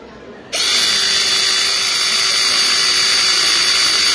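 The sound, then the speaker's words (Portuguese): A powered RE6 cable cutter, crimper and sheet-metal punch, three in one tool, switches on after a brief quiet moment and runs with a loud, steady electric whine and hiss, with no voices. “Então, eu tô aqui, eu tô aqui é, com uma máquina, inclusive, na minha mão aqui, que é uma, uma RE6, modelo RE6, cortadora, crimpadora e perfuradora de chapa, os três em um único equipamento. Vamos ligar aqui para a galera ouvir.”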